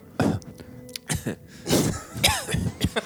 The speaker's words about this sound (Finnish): Nyt yskittää.